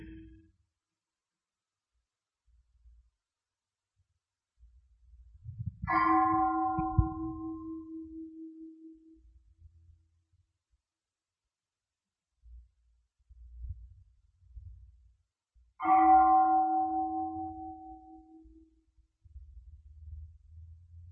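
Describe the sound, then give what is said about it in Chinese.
A meditation bell is struck twice, about ten seconds apart, while the teacher pauses his talk. Each strike rings out clearly with a mellow tone and shimmering overtones, then slowly fades, with only soft low rumbles between the strikes. “…停止讲的时候，我们听那个钟声的时候，有时候我们会觉知自己，有时候我们会跑去想，有时候跑去听钟声，我们的心没有跟自己在一起。”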